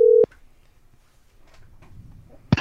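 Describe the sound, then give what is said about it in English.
A telephone keypad beeps as a number is dialed to call a musician for the WTNS radio show Inside Out with the hosts: one loud, steady tone at the start, a quiet pause with faint background noise, then another sharp tone at the end. “If you could get … hit on the phone, I'd be delighted.”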